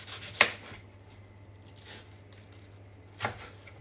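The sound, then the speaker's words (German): A knife thinly cutting apple peel: three short, crisp slicing strokes spaced about a second or more apart, the first sharpest, over a faint steady low hum with no talking. “Fein abschneiden, damit nicht, damit wen, so wenig wie möglich von dem saftigen Fruchtfleisch weggeht.”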